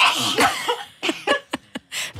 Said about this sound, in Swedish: Herregud. En dubbelnys. ja, det var en bra nysning. Oj, oj, oj. Ja, hela mixerbordet blev blött där.